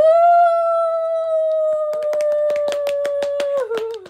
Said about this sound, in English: I'm clapping for myself.